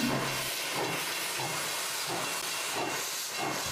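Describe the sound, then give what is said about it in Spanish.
A train lets out a steady, loud hiss of steam as it pulls away, a broad rushing noise that holds at an even level throughout with faint low rumbling beneath and no voices. “Subamos ya al tren.”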